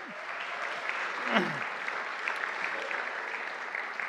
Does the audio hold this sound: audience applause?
yes